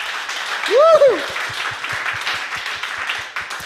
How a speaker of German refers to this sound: Lass uns doch mal, auch wenn du online zuschaust, zu Hause, wenn du bist, ganz kurz einen Applaus geben. Man hört es dann bis hierhin in das Gebäude.